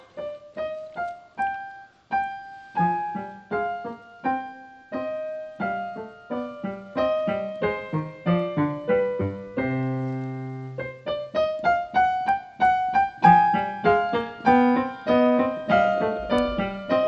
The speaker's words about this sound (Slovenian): Mozart, Mozart, uredu je, uredu je, dobro, dobro, ampak ta skladba je zdaj otožna. Tega pa si menim, noben od nas ne želi. Kaj se dogaja? Pojavil se je mol, mol da občutek diskretnosti in intimnosti.